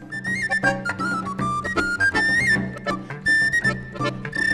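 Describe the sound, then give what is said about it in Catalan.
Gralla shawms play a loud, bright, nasal melody together after a tribute concert, continuous, with brief breaks between phrases and a steady lower accompaniment beneath. No one speaks. “Encara sonen a les graies després d'aquest concert d'homenatge a Matías Masaricó”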